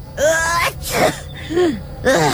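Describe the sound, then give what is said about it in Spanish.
A rapid string of three or four loud, voiced sneezes from a man suffering a seasonal allergy at Christmastime, each a sharp burst with a throaty 'choo' and barely a pause between them. “temo que estoy padeciendo mi alergia de temporada.”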